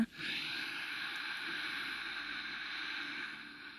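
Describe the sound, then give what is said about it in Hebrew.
A single long, deep breath taken as a breathing exercise to help concentrate, a steady airy rush that holds for several seconds and then eases off, with no talking. “כי כשאנחנו נושמים, בואו ניקח כמה נשימות, שאיפה.”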